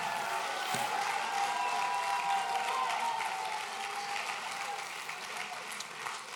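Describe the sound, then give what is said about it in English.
A large crowd claps steadily and cheers with scattered shouts of praise to God, a dense, sustained wash of applause and voices that stays loud throughout before easing slightly at the end. “If that sounds like you, take 15 good seconds, clap your hands one more time, and give God a mighty, mighty shout of praise.”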